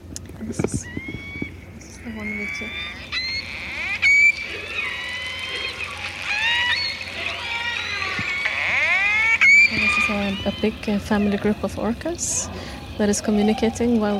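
A family of orcas calls underwater, communicating while hunting fish. Overlapping whistles and squealing pulsed calls rise and fall in pitch, sounding continuously and fairly loud for the whole stretch.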